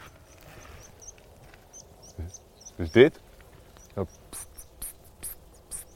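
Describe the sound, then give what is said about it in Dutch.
Thin, high flight calls of migrating meadow pipits, a series of short sharp notes repeated irregularly, growing clearer toward the end, with a brief spoken phrase and some handling noise partway through. “Graspieper. Die trekken massaal door nu.”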